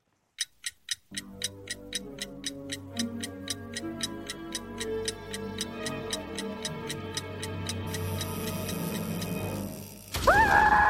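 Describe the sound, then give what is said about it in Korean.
A clockwork spring is wound and a clock ticks steadily, a crisp click about three times a second, first alone and then under music that swells in, ending with a brief bright ringing flourish. “태엽이 찡 감긴 다음에 한 타이밍 더 있다가 아 가시면 돼요”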